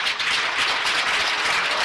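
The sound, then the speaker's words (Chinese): A crowd breaks into sustained applause, a dense, steady crackle of many hands clapping at once, loud and even throughout with no voices over it, as the audience gives themselves a round of applause. “为什么不给你自己一个掌声呢？”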